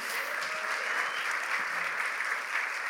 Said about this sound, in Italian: Fate un applauso pure ai vostri pastori